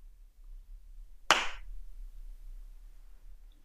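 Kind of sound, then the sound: human body sound, hand clap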